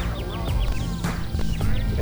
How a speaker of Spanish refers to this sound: Che, no sé si se dieron cuenta que hay muchos pajaritos también están cantando de fondo. Sí. Pajaritos. ¿E-, ¿Eso es sonido natural? Sí, visto.